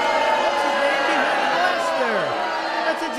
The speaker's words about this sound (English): What, what did you say? I didn't hear a word you said. I couldn't hear you over that crowd.